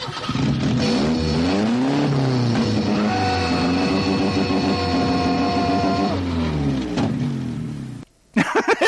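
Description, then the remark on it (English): A loud car engine revs, its pitch climbing and falling, then holds a steady roar for several seconds before cutting off abruptly, followed by a short burst of noise. “And then I thought of that scene from Ferris Bueller's Day Off when Cameron gets in the car and he revs the engine.”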